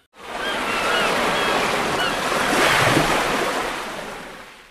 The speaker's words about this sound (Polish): Teraz nasza tradycyjna mewia, sygnałówka, a potem ruszamy z tematem.